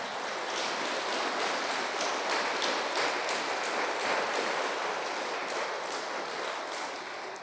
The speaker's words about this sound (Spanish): Yo creo que Él merece que le brindemos un fuerte aplauso en esta mañana.